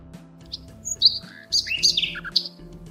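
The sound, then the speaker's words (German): A small kingfisher trills cheerfully, a quick series of bright, high chirps and warbling notes over a faint steady hum. “Als sich ein kleiner Eisvogel auf deine Schulter setzt. Ah. Und Hallo. fröhlich ein Liedchen trillert.”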